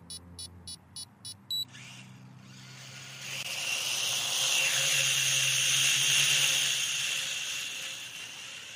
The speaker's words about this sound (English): We've got a drone here. It's just a, a little hobby drone that costs about fifty pounds